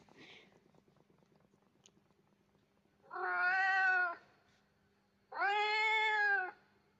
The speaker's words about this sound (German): Okay, normale Katzengeräusche.